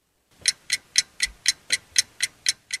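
A steady clock ticks about four times a second, each tick crisp and bright, with no voices over the regular rhythm.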